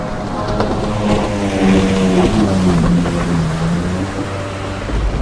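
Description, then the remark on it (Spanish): Motorcycle engines roar at full throttle as riders race in heavy rain, their droning pitch climbing and wavering as they accelerate, loud over a steady hiss of rain, with no voices. “En ese momento, arrancamos dándole con todo a las motos.”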